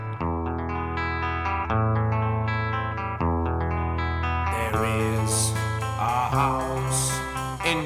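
A 1960s rock song recording plays loud and steady: sustained, effect-laden chords change every second or so, then the full band comes in halfway with bright cymbal hiss.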